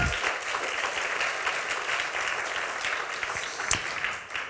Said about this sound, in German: Vielen Dank der Lobpreisband. Gebt ihnen mal einen Applaus, wenn sie runtergehen.